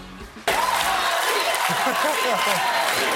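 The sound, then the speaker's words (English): After a brief quieter moment, the studio audience of The Late Show with Stephen Colbert, welcoming guest Prince Harry, abruptly bursts into loud, sustained applause, with dense clapping, cheering and rising whoops layered on top throughout. “And Les Trent says the crowd seemed thrilled that he was there.”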